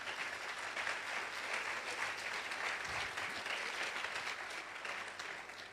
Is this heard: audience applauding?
yes